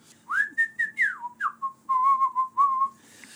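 A person whistles a short melodic tune, rising and falling in a series of clear, close tones with a slight warble, heard alone without any talking.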